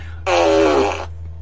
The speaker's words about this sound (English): Fart machine is active. I meant to have that on earlier today.